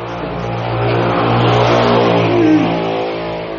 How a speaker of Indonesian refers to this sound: Oke lah itu motor